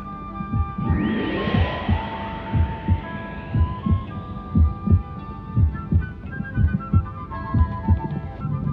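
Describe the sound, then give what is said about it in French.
A steady, low thumping heartbeat repeats in regular double beats, set against a swelling, shimmering tonal hum with rising sweeps, and no one speaking. “Et pourtant, elle tourne, cette circulation sanguine que propulse le cœur.”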